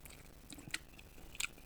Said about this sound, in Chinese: 大家可以感受一下这个最近也很流行的那个吃播，不是有时候会有的人会用那种很小的麦克风，然后靠那个吃的地方很近，就会有那个声音。我示范一次，你听，就是这种。